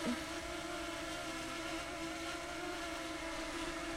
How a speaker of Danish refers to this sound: Prøver lige at lande den derovre. Så måske skulle alle købe sig en lille drone